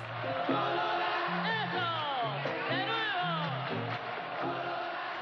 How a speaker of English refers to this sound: Over 40,000 screaming fans attended the event. The majority of the musicians on stage that night grew up or lived within a few dozen blocks of the stadium.